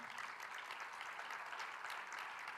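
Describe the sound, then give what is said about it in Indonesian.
A church audience claps together for God in steady, dense applause at an even level throughout, with no one speaking over it. “Kita berikan tepuk tangan bagi Tuhan.”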